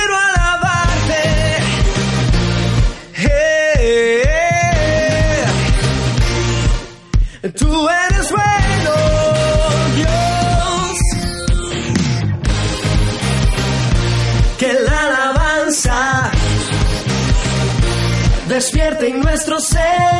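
A full-band song plays loudly and continuously on the radio, with a sung melody over steady bass, guitars and drums, briefly dipping in volume a couple of times before carrying on.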